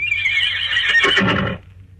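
A horse, a mare standing on a seashore, neighs once, a loud, quavering whinny lasting about a second and a half with a shaky, breathy finish, then fades into a faint low hum.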